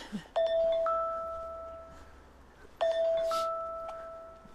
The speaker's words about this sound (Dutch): Ja, ze is de timer.